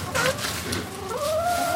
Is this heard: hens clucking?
yes